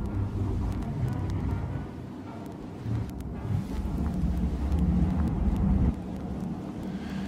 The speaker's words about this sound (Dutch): naarmate het dus op een gegeven moment steeds verder gaat... heb je op een gegeven moment eigenlijk bijna alleen nog maar witte ruis. Ja. Ehm, eh, de white noise, hele verre geluiden in de vechten...